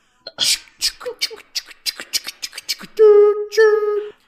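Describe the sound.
A person imitates a train with their mouth: a quick series of breathy, rhythmic chugging puffs, followed by two loud, sustained whistle-like toots.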